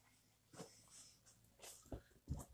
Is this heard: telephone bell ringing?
no